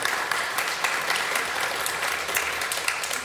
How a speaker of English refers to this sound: Clap.